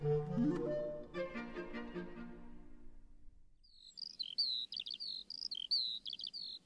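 After some ringing musical notes fade away, a lark sings a bright, rapid, clear warbling song of high chirps and trills, continuing in quick bursts to the end.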